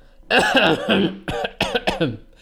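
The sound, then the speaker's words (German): A voice imitates the harsh, throaty coughing of a girl sitting next to the speaker in a cinema, several bursts in quick succession, loud, with no other talking during the sounds. “Das war schon richtiges Husten.”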